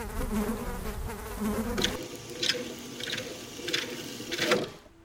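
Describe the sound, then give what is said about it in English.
Flies buzzing around a body in a steady, droning hum, with louder bursts as individual flies pass by roughly every half second in the second half, fading out at the end. No voices. “Flies surround a body and claim it for their children suggesting an attack on the problem, yelling and accusing, feeding and sustaining.”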